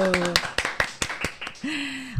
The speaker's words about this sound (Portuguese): Uma salva de palmas, minha gente. Vamos caprichar nesse barulho.